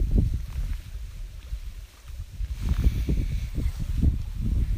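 Small waves on Lake Shikaribetsu lap repeatedly against the shore in soft, uneven pulses, while a steady gust of wind rushes across the microphone throughout. No one speaks.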